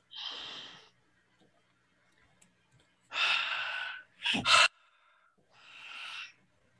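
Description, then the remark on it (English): Heavy, noisy breaths, a long exhale, then a pause, another deep breath with a sharp snort-like gasp, and a final slow exhale. A single word is briefly spoken. “lots of heavy breathing during this part of the episode.”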